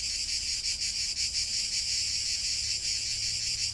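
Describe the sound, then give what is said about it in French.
A dense, continuous chorus of cicadas buzzes loudly and steadily, its shrill drone pulsing faintly without pause, with a low rumble in the background and no voices. “puis imprégnez-vous du chant des cigales.”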